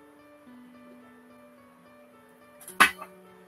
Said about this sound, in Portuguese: Deixa eu tomar um golinho d'água aqui. Não, estou bebendo água.